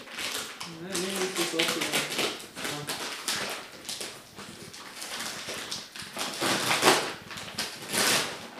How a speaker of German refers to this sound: Nicht wundern, es werden jetzt Chips aufgemacht.